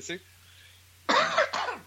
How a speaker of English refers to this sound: I need a cough.